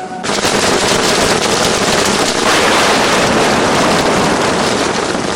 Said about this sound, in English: This sound of rain and its accompanying breeze sends many to sleep, snuggling safely and comfortably in a firm textured bed.